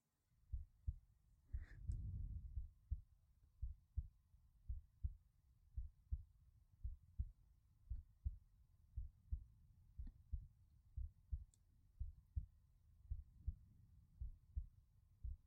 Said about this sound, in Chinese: 把头贴过来。这个感觉够贴近了吗？这可是只有你能触碰的位置，听着姐姐的心跳，会不会很安心呢？